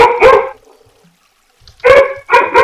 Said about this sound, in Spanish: es ese pinche perro, cállenlo. Ah, aquí no es. Es tu perro. Eh. No lo puedo callar, güey.